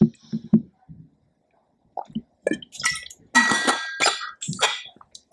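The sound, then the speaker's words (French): Someone drinking water: a few soft, low gulps and swallows, a short pause, then several breathy, hissing exhales. No one speaks. “Je devrais même boire.”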